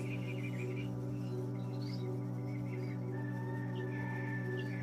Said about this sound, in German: Vielleicht hört ihr die Tiere im Hintergrund, die Natur, den Wind.